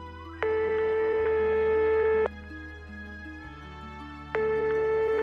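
telephone ringing tone

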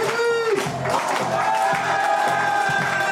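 audience applause and cheering

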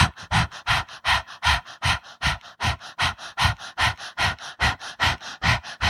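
rapid panting breathing exercise

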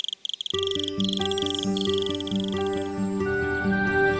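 crickets chirping

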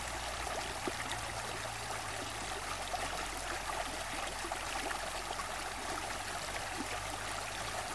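flowing stream water

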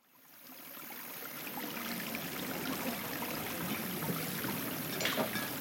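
river water flowing

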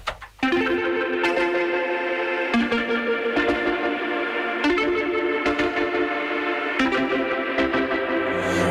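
pop song intro

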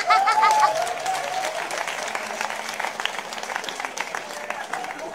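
audience applauding and cheering

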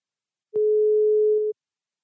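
telephone ringing tone

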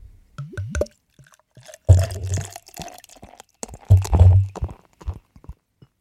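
beer poured

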